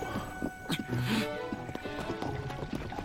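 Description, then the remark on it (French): A video game horse whinnies with a bright, wavering cry while hooves clip-clop in a steady rhythm, moderately loud, with a faint voice murmuring in the background. “j'y vais à pied, c'est bon, ils m'ont saoulé. De toute façon, euh, j'ai fait tout Breath of the Wild sans cheval”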